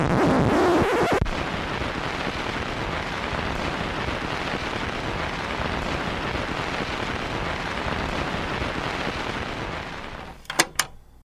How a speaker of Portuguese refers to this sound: Ela termina num, num círculo e fica um ciclo infinito. Então, enquanto a sua vitrola estiver rodando, o disco vai ficar com aquele efeito de, de chiado infinitamente.